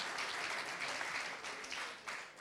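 A crowd claps steadily, a dense, even wash of many hands sustained for a couple of seconds with slight swells in loudness, no voices standing out.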